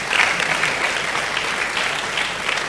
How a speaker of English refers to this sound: Another round of applause for our guest speaker.